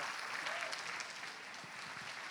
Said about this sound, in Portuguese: Pode aplaudir ao Senhor.